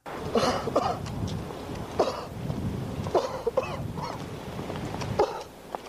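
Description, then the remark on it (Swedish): A series of exaggerated, theatrical fake coughs from one voice, an actor in a film, loud, coming in uneven bursts with honking, throaty rasps that sound forced rather than natural. “Ja, jag menar, jag har aldrig hört en så dåligt spelad hosta någonsin.”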